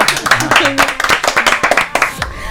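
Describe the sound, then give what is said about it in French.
A single audience member in a radio studio claps hands in a quick, steady run of sharp claps lasting a couple of seconds, with voices talking and laughing underneath. “Il personne qui applaudit.”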